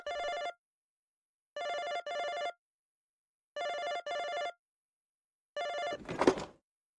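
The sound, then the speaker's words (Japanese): A telephone call from hotel staff at 3:30 at night rings in short electronic double bursts, repeating steadily, waking a sleeper, then a brief clattering noise cuts in as the last ring begins. No one speaks. “私はまた電話で起こされたんです。”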